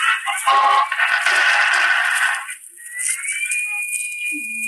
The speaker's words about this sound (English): That's a peculiar transmission sound.